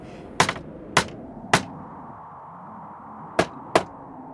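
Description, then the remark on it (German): Sharp, loud hammer blows striking nails into a wooden window shutter being repaired on a balcony during a storm, about six irregular strikes with a pause in the middle, over a low steady rumble and no talking. “Ich will doch nur Ihren Fensterladen reparieren.”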